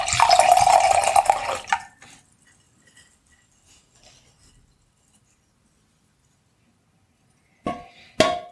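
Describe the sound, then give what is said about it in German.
White wine pours steadily into a glass for about two seconds, clear, then stops; after a quiet pause, two quick glassy clinks follow. “Könntest du mir jetzt nochmal zum Vergleich einen Schluck von dem Weißwein einschenken?”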